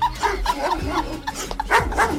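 A Rottweiler barks aggressively in a rapid, rough series of loud barks with growling undertones, steady throughout with no voices.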